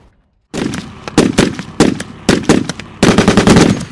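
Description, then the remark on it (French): Heavy guns of ships of the Russian Northern Fleet fire during combat training in August 2023, in rapid, booming bursts, each shot cracking loudly and rolling into the next, ending in a dense volley of overlapping blasts. No voices are heard. “Vous entendez des bâtiments de la flotte russe du Nord en train de s'entraîner au combat en août 2023.”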